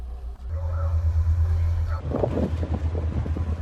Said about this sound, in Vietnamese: Càng đi xa đất liền, tiếng sóng vỗ mạnh hơn, tiếng nói cười ít dần.